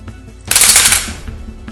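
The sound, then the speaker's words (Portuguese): A single sharp gunshot bursts out loud, its harsh crack fading over about half a second against a quiet low background, with no voices. “e dispara primeiro. O tiro pega no braço do Eduardo.”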